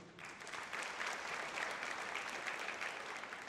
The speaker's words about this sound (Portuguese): Recebendo palmas, hein? Vocês estão tão bem, hein? Coisa boa, né?